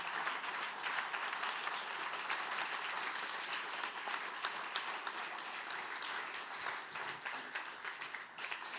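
Sustained audience applause for two actresses, a singer and a pianist, a dense wash of many hands clapping steadily and evenly for the whole stretch, with no pauses and no voices standing out.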